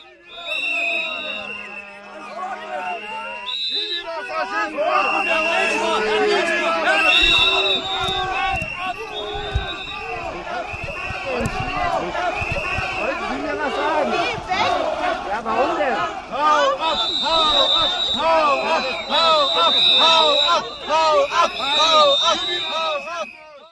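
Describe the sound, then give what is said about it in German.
A loud, agitated crowd shouts over and over at a state premier who approaches people and tries to talk with them; many voices overlap in angry yelling and jeering, with piercing high whistles cutting through the din throughout. “Und die brüllen ihn einfach nur an.”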